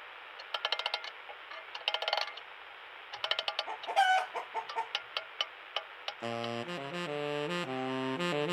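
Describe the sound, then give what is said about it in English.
A chicken named Chicken clucks in a run of short, choppy bursts over a steady background hiss, then a bright jazzy tune starts up and carries on to the end. “I'll lower Chicken down for a little jazz, and then I really need to go on a cake hunt. Here's Chicken now.”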